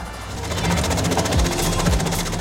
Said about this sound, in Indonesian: Dan seiring meningkatnya jumlah pemesanan, 10 tahun yang lalu mesin perajang bawang merah otomatis ini digunakan.